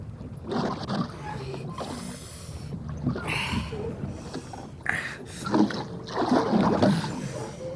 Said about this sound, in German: Und nun ruderten sie in einem weiten Bogen um die Insel herum